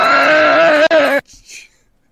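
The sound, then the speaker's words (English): A voice imitates a loud, harsh, otherworldly screech, held strained and tonal for about a second before cutting off abruptly, leaving only faint breathy traces afterward. “And you start to hear an otherworldly screech that is so loud and it sends you to your knees.”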